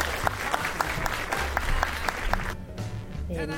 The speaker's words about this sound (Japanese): じゃあ皆さん拍手で。ありがとうございました。